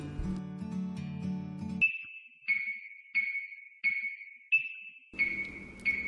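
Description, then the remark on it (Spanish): An alarm clock rings with a steady series of high electronic beeps, about six in a row at an even pace, clear, following a brief stretch of music. “Suena el despertador. Le da a posponer.”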